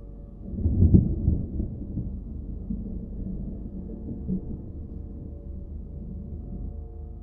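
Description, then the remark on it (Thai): A deep, distant rumble of thunder in the mountains, under an overcast sky turned dark before heavy rain, swells in the first second or two, then rolls on as a low, steady growl that slowly fades, with no voices present. “ท้องฟ้าจากที่ครึ้มฟ้าครึ้มฝน ตอนนี้กลายเป็นมืดทึบ เสียงฟ้าร้องดังมาจากไกลๆ”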